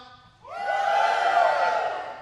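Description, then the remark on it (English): A church audience, called on by the preacher to shout, bursts into a loud collective shout after a brief quiet moment. Their voices rise together and hold a sustained, rowdy roar for nearly two seconds. “While he and all Israel were bringing up the ark of the Lord with shouts, come on, let's shout.”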